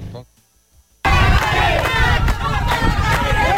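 After a second of near silence, a loud crowd of residents of Cortón protesting for drinking water bursts into continuous shouting and chanting, many overlapping voices holding a steady, raucous roar to the end.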